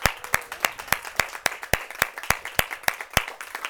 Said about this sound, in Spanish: Quien vive, hermanos, y a su nombre, ofrézcale una ofrenda de palmas porque Él se lo merece.